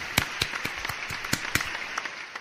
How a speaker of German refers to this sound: Applaus für Michael Stern.